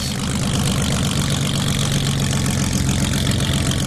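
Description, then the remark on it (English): A powerful airplane engine drives a flat-bottomed sea sled boat across Seattle waters at over 40 knots. It roars steadily and loudly throughout, with a deep rumbling low end and a constant churning drone. “The sea sled can hit a speed of over 40 knots because they're equipped with, you guessed it, airplane engines.”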